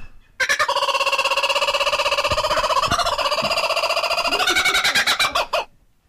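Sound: laughing kookaburra call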